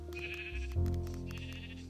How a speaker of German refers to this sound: Hier ist ein Schaf.